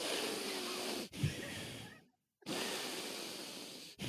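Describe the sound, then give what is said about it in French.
A voice imitates heavy breathing: long, loud, noisy breaths in and out, with a brief silent pause midway before another forceful exhale. “Je, t'entends ah, respirer fort.”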